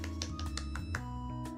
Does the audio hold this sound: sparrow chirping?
no